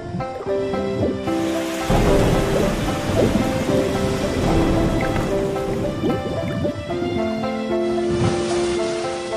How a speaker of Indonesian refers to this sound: Berhari-hari, mereka mengarungi samudra. Terkadang, hujan badai yang ganas menghadang perjalanan mereka.